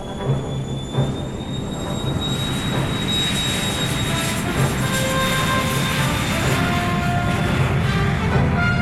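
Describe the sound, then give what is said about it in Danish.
A loud, steady jet engine roar with a high, sustained whine on top, like an airplane powering up for takeoff, with no voices. “og jeg vil sige, i det øjeblik, at, at hjulene, de, øh, eller flyet letter”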